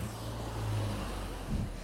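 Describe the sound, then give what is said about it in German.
A school bus engine drones low and steady as it comes up from behind, its rumble swelling slightly as it draws closer, with road noise underneath and no voices. “Kommt, von hinten kommt ein Auto, Ne, sogar ein Schulbus.”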